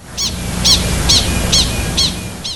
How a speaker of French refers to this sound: Donc là, c'est pas facile à distinguer quand on est humain, mais euh, je vais vous euh, faire jouer le cri du chien de prairie quand il voit un coyote.